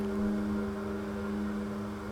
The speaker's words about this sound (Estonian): on vee keetmise hääl.